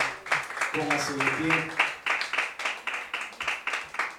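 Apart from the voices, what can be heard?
audience clapping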